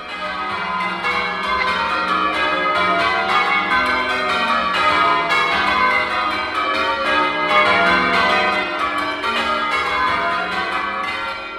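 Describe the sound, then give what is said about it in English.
The ten bells of the Church of St Mary Magdalene in Reigate ring Grandsire Caters continuously in change-ringing style, many overlapping strikes in a steady tumbling rhythm, loud and resonant with no voices present. “The Grandsire Caters we hear captures the distinctive sound of these 10 bells.”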